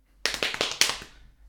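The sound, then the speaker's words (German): A short burst of hand clapping, about six quick, sharp claps in a steady rhythm, fairly loud, with no talking, then a fading tail. “Nö, du, du kannst klatschen.”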